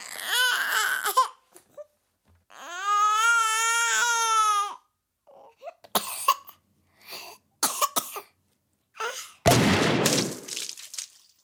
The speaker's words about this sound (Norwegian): Og så avslutter vi kvelden her på NRK Alltid Contentum med lydingeniør Kyrre Vadumekumsens mesterverk Forkjølet liten baby eksploderer.